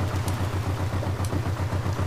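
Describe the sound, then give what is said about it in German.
A motorboat approaching at night, its engine chugging steadily with a low, pulsing throb, loud, running on without pause and with no voices. “Ja, da kommt ein Boot.”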